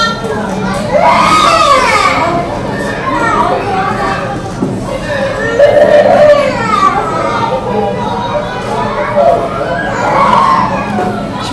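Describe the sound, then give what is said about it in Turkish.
Lively children playing outdoors at a street-closure play event in Sultanbeyli, with high excited voices shouting and chattering over one another in a steady, busy crowd hubbub that swells and dips throughout. “Bu Sultanbeyli'de e, yaptığımız onların sokak kapama etkinliğiydi Aynı zamanda oyun etkinliği organize”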